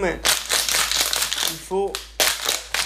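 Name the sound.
plastic water bottle crinkling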